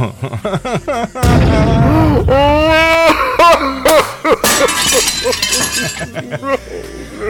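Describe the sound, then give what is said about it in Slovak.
A wine glass shatters in a sudden, loud crash, followed by scattered clinking of pieces and further sharp knocks, with voices and laughter mixed in. “milačku, rozbil mi pohár na vino nevadzi, budeme piť spalenku.”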